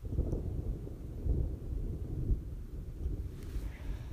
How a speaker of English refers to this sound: Actually, it's mesmerising being around thunder these last couple of days. The storms have been unreal, and today it's been 30 degree heat all day, 32, and uh, yeah, and then after work the storms have just hit.